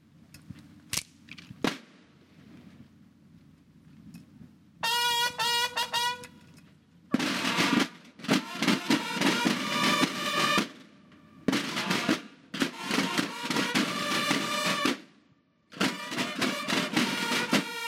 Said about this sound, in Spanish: interpretaremos eh, el toque Diana Antigua Diana Antigua. Son toques clásicos también para nosotros que de igual manera se, están tocando previamente antes de iniciar el desfile.